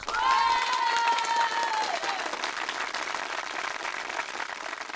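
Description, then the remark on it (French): Steady applause from many people clapping at their windows at 8 pm, as every evening, a dense continuous patter, with a long high whistle ringing out over it in the first two seconds. “En tout cas, pas depuis la salve d'applaudissements qui a retenti à 20h ce soir, comme tous les soirs.”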